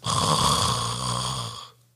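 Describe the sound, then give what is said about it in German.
A person imitates a mouth snore: one drawn-out, rattling snort lasting under two seconds, loud, then cutting off abruptly. There is no talking over it. “Dieser typische Nasenschnarcher und dann gibt es noch diesen Mundschnarcher, dieses.”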